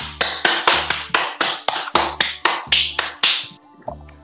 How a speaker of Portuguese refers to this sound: Palmas um pouco violentas.